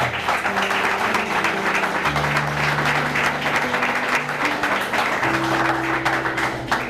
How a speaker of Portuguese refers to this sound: E eu queria uma salva de palmas para ele, porque isso é um princípio da honra.